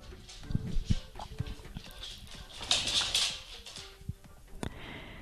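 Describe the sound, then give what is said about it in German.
Light, irregular tapping of a female dog's paws pattering across a hard floor, soft clicks scattered unevenly against a faint background hiss, with no one speaking. “Ja, und vielleicht hörst du hier im Hintergrund so ein bisschen Getapse.”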